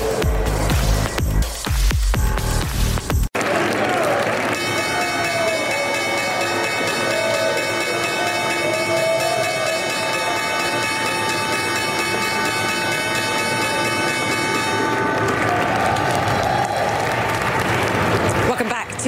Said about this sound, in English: Stay with us. The opening bell here at the New York Stock Exchange is next.